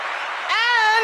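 A brief applause sound effect: a half-second burst of dense clapping noise that gives way to a loud, sustained tonal sound with a bright, rising pitch.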